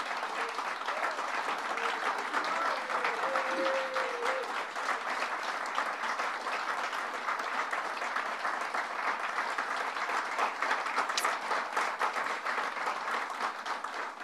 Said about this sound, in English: And a special welcome to the legislators who started this crusade. Uh, first and foremost, Assemblymember Margaret, Margaret Markey. Uh, let's give her a round of applause.